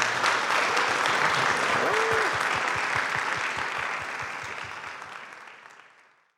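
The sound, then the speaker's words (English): An audience claps steadily after a lecture at the Australian Centre for Contemporary Art (ACCA) in Melbourne, a dense wash of applause that holds strong for several seconds before gradually thinning and fading out. “Uh, and please uh, help me to thank … again for his wonderful lecture.”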